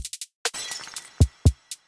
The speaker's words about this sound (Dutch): Ik brak een glas toen ik tegen de koffietafel sloeg.